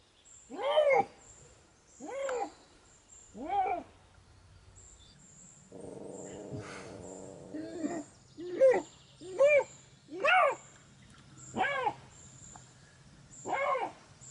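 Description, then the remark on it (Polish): A Eurasian lynx gives a series of about nine loud, hoarse, moaning calls, evenly spaced about a second or two apart, with a brief stretch of rough background noise midway. “To stop, to teraz oddamy głos Rysiowi.”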